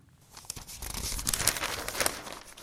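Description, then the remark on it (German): Rustling paper crinkles as pages of a daily newspaper are turned and handled, a steady dry crackle building over a couple of seconds with no voices. “Morgens gemütlich beim Kaffee durch die Tageszeitung blättern, gerade für ältere Leser und Leserinnen ein Ritual, das sie nicht durch digitale Angebote ersetzen möchten.”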